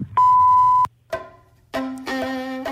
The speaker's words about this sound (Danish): Hello, please leave a message after the tone.